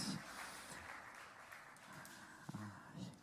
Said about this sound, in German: Wollen wir mal unserem Lobpreisteam einen Applaus geben? Die machen das jeden Sonntag neu so, so gut.